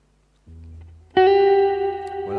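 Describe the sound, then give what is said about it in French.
A single electric guitar note rings out with a reverb effect, following a low hum, sustaining loud and bright with a lingering wash before another note begins near the end. “Donc voilà, on va mettre une petite reverb.”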